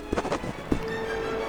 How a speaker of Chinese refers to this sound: 安德烈刚刚写完邀请函，突然刮起了一阵大风，把邀请函全都卷走了。